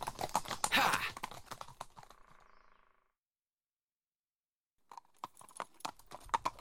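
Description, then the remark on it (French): Horse hooves clip-clop in quick, sharp knocks, fading out into a few seconds of silence before another lively burst of hoofbeats resumes; the horse is Granny, Sigurd's magic horse. “Sigurd choisit Granny, un cheval magique qui va lui être bien utile plus tard.”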